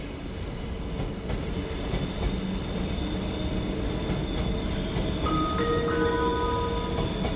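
A train rolls steadily past with a low rumble over a junction with a cross track at the entrance to a station platform, its wheels giving soft, irregular clicks as they cross track joints, and a thin metallic squeal rises near the end.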